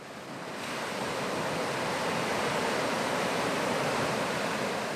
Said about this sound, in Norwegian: Hør på bølgene igjen. Tenk deg at de slår mot fjæresteinene i Norge